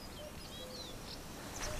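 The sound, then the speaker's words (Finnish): Faint chirps from small birds drift over a steady outdoor hiss, a few thin high calls scattered across the quiet ambience of a lake where swans and other smaller birds move about. “Joutsenia ja, ja, ja muita pieniä, pienempiä, sitä pienempiä lintuja.”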